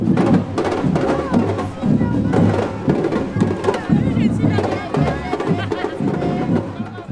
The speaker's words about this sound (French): nous voilà arrivés dans une foule qui marche et qui danse.